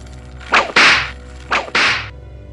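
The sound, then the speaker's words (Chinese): Two sharp whip lashes strike the body of a prisoner in a jail, each a quick swishing crack followed by a broad, hissing smack, spaced about a second apart over a low steady hum, with no voices. “鞭子狠狠的抽打着禹之谟，他被打得昏死了过去。”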